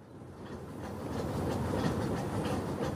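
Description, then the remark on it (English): A train to Calcutta, India, rumbles steadily along the rails, its wheels clicking in a regular rhythm over a continuous low roar, fairly loud, with no voices. “On the train going to Calcutta, she speaks for the first time.”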